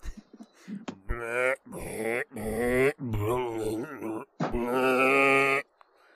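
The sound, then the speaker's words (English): A person imitates a zombie burping and gurgling with a series of loud, throaty, gurgling groans and belch-like croaks, five or six drawn-out bursts in a row, wavering like a bleating goat. “Um, but he was always easy to re- he was always easy to spot out because you'd hear him burping and gurgling.”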